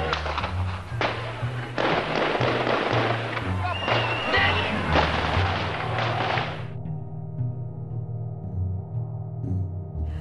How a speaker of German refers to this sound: Sowjetische Kampfpanzer und Fallschirmjäger rücken gegen das Fernsehzentrum fünf Kilometer von der Stadtmitte entfernt vor. Es ist von Litauern umstellt, die es schützen wollen. Dann, gegen 0.30 Uhr, fallen die ersten Schüsse.